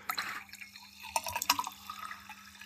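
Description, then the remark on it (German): Water is poured into a glass, a gurgling splash with bright bubbly trickles and a few clinks, lasting a couple of seconds with no talking. “Dann verweilt noch, wir gießen uns hier noch ein Stück Wasser für die restliche Moderation ein.”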